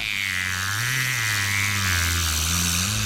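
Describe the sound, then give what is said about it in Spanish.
A whale imitating a boat motor while trying to tow a motor launch: a steady, loud, low humming drone with a buzzing edge, continuous and slightly wavering in pitch for about three seconds, with no talking. “Y vaya que sí parece motor de bote.”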